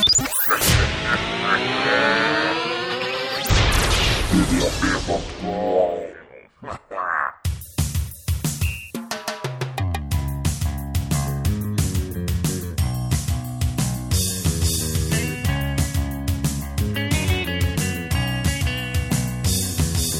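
Revving engine and traffic-like sound effects open the track, then an upbeat summery pop song kicks in with a steady driving beat and loud bass, playing on without talk.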